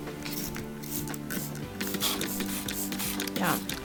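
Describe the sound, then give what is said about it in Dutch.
Several quick, hissy spritzes of water from a spray bottle onto cotton balls or fresh foliage, spaced irregularly over a steady tonal music bed, with a brief squishy rustle between bursts. “So if your rock is either sedimentary or metamorphic, simply provide several cotton balls or a handful of fresh foliage and spray with water daily.”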